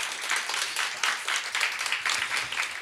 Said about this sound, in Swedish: Eh, ja, en applåd.